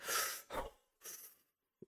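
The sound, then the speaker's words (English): A person demonstrates a hyperventilation breathing technique with three quick, forceful breaths in and out, fairly loud, followed by a brief pause and a small click. “You wanna you wanna do like it's almost like hyperventilating.”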